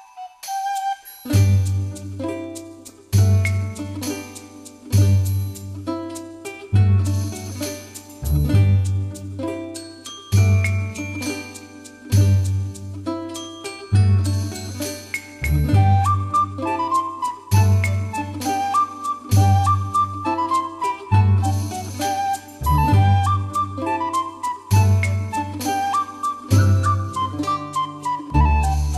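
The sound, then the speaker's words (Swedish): An instrumental video game soundtrack tune, the music that plays in a town in the game Crystal Chronicles, plays alone: a steady bouncing bass pulse beneath bright, tinkling melodic lines, with a rising bell-like melody joining in the second half. No voices. “jag kommer faktiskt inte ihåg staden, vad staden heter när den här låten spelas, men jag har såna jäkla fina minnen från när jag sitter och spelar det här spelet”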